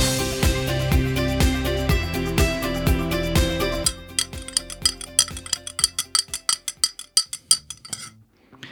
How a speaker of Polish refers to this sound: Mieszaj głośno, żeby słyszeli.